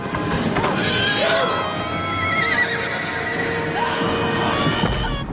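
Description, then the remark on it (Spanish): A horse rears and neighs loudly and shrilly, its whinny rising and falling amid snorts and stamping hooves, with a dense din of battle between mounted riders and an army filling the background. “Un caballo se encabrita frente a Pippin.”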